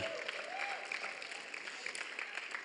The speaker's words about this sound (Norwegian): Jeg syns du skal klappe for han, altså.